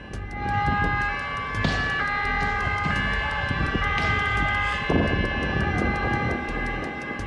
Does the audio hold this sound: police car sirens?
yes